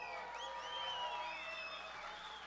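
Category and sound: crowd, audience applause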